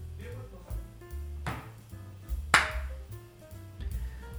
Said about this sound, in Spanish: Aplaudo, ya aplaudo.